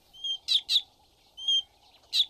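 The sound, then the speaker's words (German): A fork-tailed drongo, a black bird just under blackbird size, mimics a meerkat warning call for a bird of prey: five sharp, high chirps in an uneven sequence, clear, with no talking and only a faint low hum behind. “Er imitiert mit Vorliebe Warnrufe von Erdmännchen, zum Beispiel Achtung, Raubvogel.”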